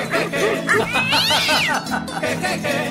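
A cat yowls loudly, a drawn-out wavering caterwaul that rises and falls, with shorter meows on either side filling the whole few seconds.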